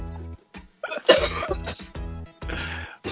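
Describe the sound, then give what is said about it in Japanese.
A run of harsh, repeated coughs from one person with clogged ears and a bad nose, coming in several bursts with short gaps between them, fairly loud and with no talking. “でも、あれでしょ、耳が詰まって鼻が悪くなってんじゃないのそう、それで今、咳が出てるんだ、多分”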